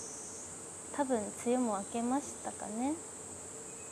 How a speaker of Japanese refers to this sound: いやもうセミの声もね聞こえてるので